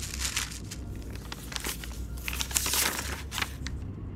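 Crinkling of a paper note pulled from a jacket pocket and unfolded after its small heart seal is flicked away, with a steady run of crisp rustles and small crackles over a few seconds and no voices.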